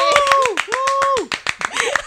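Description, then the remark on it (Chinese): A quick burst of hand clapping, called for while a book is being promoted, sharp claps rattling in a rapid, uneven rhythm for about two seconds, with a voice calling out in long, sliding tones over it. “现在这本只要两百八十五块，掌声鼓励！”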